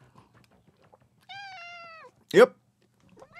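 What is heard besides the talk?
cat meowing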